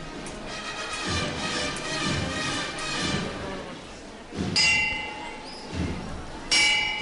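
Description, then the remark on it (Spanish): Two sharp, clanging bell strikes about two seconds apart, each leaving a bright ringing tone over a steady murmur of crowd noise and voices, signalling that the procession float of the Santísimo Cristo de la Buena Muerte is lowered again at the junction with calle Joaquín Tenorio. “que de campana y el trono del Santísimo Cristo de la Buena Muerte que se arría de nuevo justo en la confluencia ya con la calle Joaquín Tenorio.”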